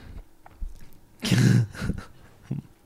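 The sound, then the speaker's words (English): A pet dog that wants to come in and has lost its ball gives one loud breathy huff among a few quieter pants and soft shuffling movements, with no one speaking. “That's our dog, by the way.”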